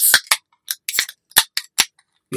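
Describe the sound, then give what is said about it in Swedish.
A can of Mariestads klass 3 beer being opened: a quick series of sharp metallic clicks and snaps in an uneven rhythm, with no talking over them. “Burköppnar ljudet.”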